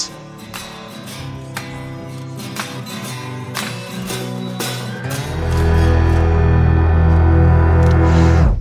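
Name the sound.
rap song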